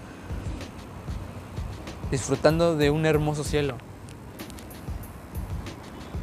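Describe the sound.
Steady low rumble of street traffic, with cars passing, runs underneath a man talking in the foreground throughout, heard from a terrace in Playa del Carmen, Mexico.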